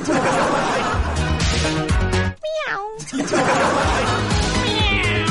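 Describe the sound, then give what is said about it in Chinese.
A person makes a drawn-out, wavering meow in imitation of a cat, heard briefly in a quieter gap within loud, continuous crowd chatter and laughter. “喵，你一听就不是什么好猫。”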